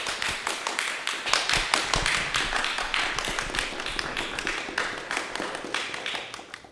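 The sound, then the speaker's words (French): An audience applauds the guests at the close of an evening event organized by Le Livre de Poche and Audiolib: a dense, crackling wash of many hands clapping at once, holding a steady, fairly loud level for several seconds with no voices over it. “On peut, je pense, applaudir nos amis ici présents et conclure ainsi ce podcast.”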